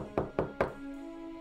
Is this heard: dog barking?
no